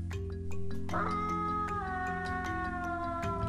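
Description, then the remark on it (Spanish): A wolf howls loudly in one long, drawn-out cry that slowly slides down in pitch, carried over a steady low musical drone with no talking. “Escuchó su aullido fuerte y se fue corriendo hacia su casita.”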